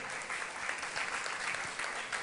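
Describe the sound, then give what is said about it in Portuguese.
An audience claps steadily for the people born after 1998, a dense wash of many hands at moderate loudness with no pause, sustained for a couple of seconds. “Vamos, vamos aplaudir para vocês? Vamos aplaudir?”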